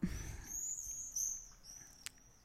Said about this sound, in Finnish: hienosti kuuluu pääskyset lentää tuossa ja kirkuu. Ihanasti lentää tuossa mun parvekkeen ikkunan ohitse ja autot kuuluu vielä, kun mulla on parvekkeen ovet kaikki täällä auki tietenkin, kun täällä on niin kauhean kuuma.